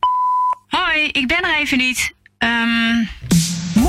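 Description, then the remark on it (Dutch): A single steady electronic voicemail beep, clear and about half a second long, followed by a person speaking. “Je luistert naar de voicemail.”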